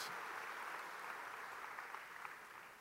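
A crowd applauds the Lord steadily, a dense wash of many hands clapping at a constant, loud level with no voices rising above it, tapering only slightly toward the end.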